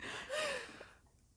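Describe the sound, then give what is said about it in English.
A dog panting softly on top of a pillow, a single breathy huff of air with a faint whiny tone that trails off into quiet. No one talks. “out of it, but also just like panting on top of a pillow, like.”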